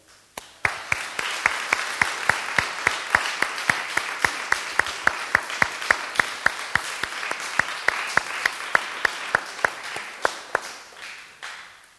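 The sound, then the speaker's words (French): Sustained audience applause thanking the presenters, a dense wash of clapping with some sharper individual claps standing out in a fairly steady rhythm, tapering off slightly at the end. “Je propose que ceux, avant que vous applaudissiez, ceux qui ont été touchés, bénis, interpellés, vous les applaudir et leur dire merci.”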